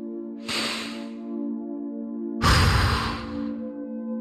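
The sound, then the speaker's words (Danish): Two deep, audible breaths drawn down into the belly, each a soft airy inhale through the nose followed by a fuller, louder exhale out through the mouth, over a low steady hum with no talking. “Ind gennem næsen og ud gennem munden. Få gerne noget lyd på, når du puster luften ud.”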